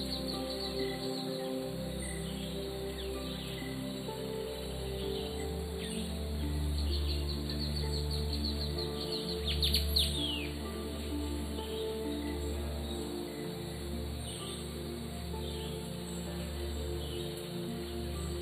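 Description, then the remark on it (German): Scattered bird chirps and calls ring out over a dense, steady rainforest ambience in the early morning, with a brief cluster of brighter calls midway through. No one speaks. “Vögel.”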